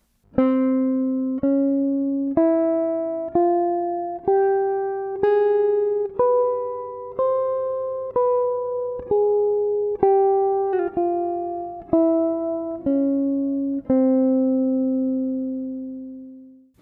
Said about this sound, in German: Hier ist die Lösung, es war auch wieder eine Dur-Tonleiter, aber mit einer kleinen Sekunde, also des statt D, und mit einer kleinen Sechste